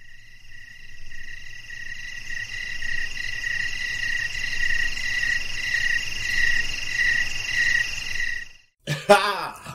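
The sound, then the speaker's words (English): A dense, steady chorus of crickets chirping in a continuous shrill trill for several seconds, then cutting off abruptly before a brief voice sound at the end. “post production, the cricket noises are gonna be all over this like a rash.”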